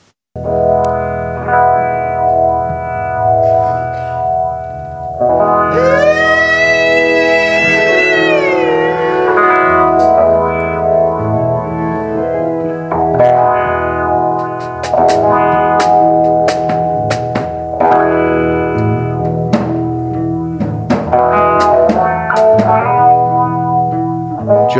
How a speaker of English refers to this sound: Not sure, but that sounds like … is plugging into yet another different wah wah.